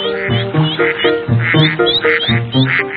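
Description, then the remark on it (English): A family of ducks quack over and over in quick, nasal bursts, several calls overlapping in an uneven chatter. Fairly loud, with no one speaking. “Caillou loves watching the duck family.”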